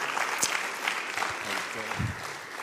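A crowd claps steadily in a dense wash of applause filling the room, with a voice briefly audible underneath near the end.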